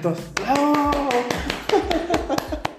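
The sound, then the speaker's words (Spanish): Hands clap repeatedly in sharp, uneven bursts, about ten claps over a few seconds, while a voice talks and vocalizes over them. “en un manicomio para ver quién aplaudía.”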